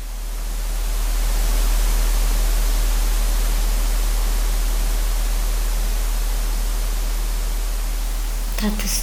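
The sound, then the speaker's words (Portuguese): Steady, even static from a radio turned down to low volume and placed in the farthest part of a house hisses without a break for several seconds, a smooth wash of noise with a brief crackle near the end and no voices or music coming through. “Coloco o aparelho na zona mais afastada da casa e baixo-lhe o volume para que se ouça somente a estática.”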